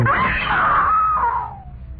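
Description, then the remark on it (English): A woman lets out one loud, sustained, piercing scream, holding high before sliding down in pitch and trailing off near the end. “I screamed.”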